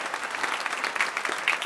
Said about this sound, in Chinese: 这个时候，我们背景应该响起哗啦哗啦的掌声。